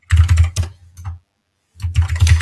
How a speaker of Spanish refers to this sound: Sí, de hecho, ay, perdón, se escucha mi teclado, una disculpa. Es que estaba respondiéndole en el chat.